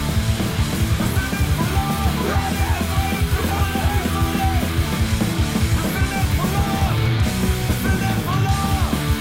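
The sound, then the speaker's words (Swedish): A loud, fast hardcore punk passage driven by relentless pounding drums under a dense wall of distorted guitar, playing continuously at full intensity for the whole stretch. “Här har vi det där trumbitet också.”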